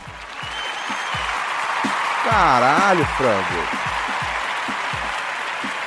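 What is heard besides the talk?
applause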